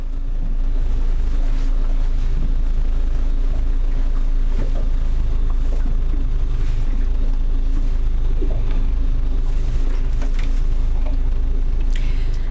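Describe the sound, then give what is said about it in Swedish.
A research boat's engine idles steadily at a red boathouse on Själö off Pargas, a half-covered boat with a roofed helm, a loud continuous low rumble with a droning hum, while faint splashes, clanks and a bird or two come through on top. “Motorn är redan igång”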